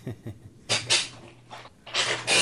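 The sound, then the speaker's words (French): A recent armchair creaks and squeaks several times as someone shifts position, with a few short grinding bursts and a longer strained creak at the end, fairly loud. “Tu pourras faire une coupe parce que je change de position et mon fauteuil va grincer.”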